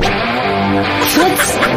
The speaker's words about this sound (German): So klingt die neue Windows Vista Fehlermeldung. Da muss man sich nicht groß umgewöhnen.